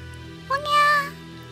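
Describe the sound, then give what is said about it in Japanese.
A voice imitates a newborn baby's cry, a single wailing "ogyaa" with a sharp rising onset and a sustained, nasal, moderately loud tone, heard alone over faint background hum. “おにゃー」と赤ちゃんの泣き声が聞こえてくるではありませんか”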